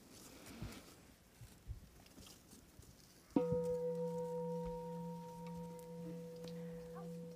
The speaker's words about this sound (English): Mouths are closed, eyes can be open or closed, ears are open, and we are listening. I'm going to ring the bell to start.